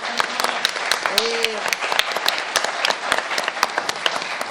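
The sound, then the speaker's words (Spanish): An audience breaks into sustained applause for the guests and a pianist on the program Primer Movimiento, many hands clapping in a dense, steady patter for several seconds, with a brief vocal cheer or call rising above it. “Vamos a darle un aplauso a nuestros invitados, a nuestro músico en cabina, bueno, en sala.”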